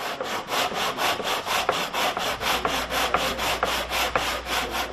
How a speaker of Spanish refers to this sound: Así suena un taller de la iglesia donde se construyen de forma prácticamente artesanal 5.000 receptores de radio alimentados con energía solar que serán distribuidos por las comunidades más lejanas del Amazonas.